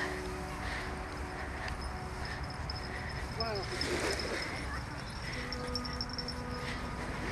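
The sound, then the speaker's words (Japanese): Soft, steady wash of gentle sea waves on a quiet beach on a dead-calm day, a low continuous hiss with no strong breakers, and a brief faint whine partway through. “波の音がねやっぱいいですね癒されるいつまでも見てられるような今日はすごいなぎですね全然本当に静かな海、まあ、サーファーの方にはね全然良くない状態なんでしょうけどもね”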